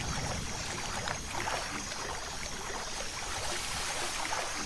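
A boat being rowed through water, heard as a steady watery wash with soft, repeated paddle splashes at a slow, even pace, the rowing slowing as its energy runs out. Continuous, with no voices.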